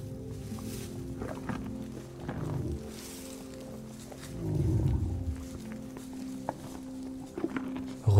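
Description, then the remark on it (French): A dinosaur gives deep, rumbling roars and growls in two main bursts, the second louder, with snorts and sharp crunching, munching sounds as it eats leaves from a hand. No one speaks. “ressent toute l'énergie de ce majestueux dinosaure.”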